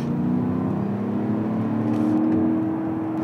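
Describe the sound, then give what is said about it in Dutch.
The 435 hp 4-litre V8 engine of an Audi SQ7 SUV drones loudly and steadily, its deep tone climbing gently as it revs, with no voices over it. “De nieuwe SQ7, ja, die moet het tegenwoordig doen met een schamele 435 pk sterke 4 liter V8.”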